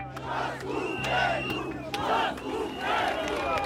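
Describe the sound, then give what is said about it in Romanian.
A protest crowd chants "down with the government" against its COVID restrictions in a loud, rhythmic unison, voices swelling in repeated pulses about every second, with sharp shouts cutting through and a steady low hum of the gathering underneath. “Și în timp ce unii hulesc Curtea Constituțională pentru că i-a scos pe bolnavi din spitale, alții strigă jos guvernul pentru că impune restricții.”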